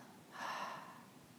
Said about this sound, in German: Und wenn du soweit bist, dann schließe deine Augen und wir nehmen einen tiefen Atemzug durch die Nase ein und atmen durch den Mund wieder aus.